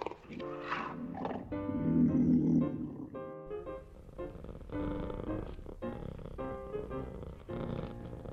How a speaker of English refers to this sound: The cat walked up to the man from Shubutia Utilis and rubbed his body against his padded legs. He put his gloved hand against the cat's head, and for the first time in centuries, the cat purred.